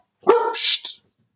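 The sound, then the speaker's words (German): A single sharp dog bark, loud and abrupt with a slightly rough, gruff tail, followed by silence. The female dog barks because she gets upset when she hears talk of an electric heating band. “Hund, muss gerade meinem Hund eine Feuer, ja, ja, Entschuldigung.”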